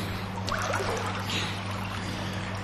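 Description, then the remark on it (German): Steady splashing and sloshing of water as a pool noodle is pushed under water and released in a pool, continuing for a few seconds at moderate loudness with a low hum underneath and no voices. “Und so eine Poolnudel, die kann man ja auch abschießen. Wenn ich jetzt unter Wasser drücke und dann loslasse, Rakete.”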